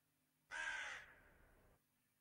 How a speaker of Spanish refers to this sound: Ahí habéis estado escuchando todo el rato un cuervo